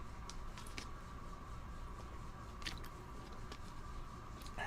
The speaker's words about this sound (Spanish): Déjame tomar agua.